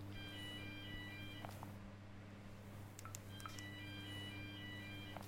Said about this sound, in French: Attends, je réponds au téléphone, juste, parce que je vois qu'il sonne, personne ne répond.